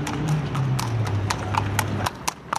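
Horse hooves clip-clop in a steady, quick rhythm of sharp repeated knocks, with a low continuous rumble of cart wheels underneath and some background murmur.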